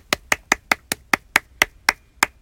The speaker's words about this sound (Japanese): 一人で拍手してる切ないとあのまだ始めて間もない長谷部さんが言ってたなと今ちょっと思い出しましたはい。